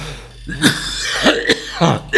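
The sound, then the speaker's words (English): A person clears their throat several times in a row, a run of short, rough rasps and hacks with brief pauses between them, and no talking. “Let me clear my throat here.”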